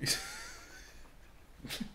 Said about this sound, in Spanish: no, vamos a censurar eso. Eso fue un eructo de alguien en el micrófono 1, sí, señores.